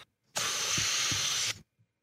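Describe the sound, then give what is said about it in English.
A steady, loud hiss of helium rushing out of a balloon on National Helium Day lasts just over a second, starting and stopping abruptly, with faint low thumps partway through. “And I've had a balloon here all day, and I, I want to like actually do what? stuff with it.”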